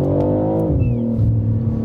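A BMW M3 Touring on winter tyres revs loudly as the car accelerates in slushy weather, its deep rumbling tone dropping in pitch partway through, as if shifting gear, then pulling on steadily.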